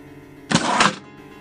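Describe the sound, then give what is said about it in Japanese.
A wire mousetrap door snaps shut on a mouse when the catch holding the bait comes loose. It makes one loud, sharp metallic clatter lasting about half a second, with faint background hum before and after and no voices. “餌についていた鍵が外れてネズミ捕りの入り口が閉じてしまいました”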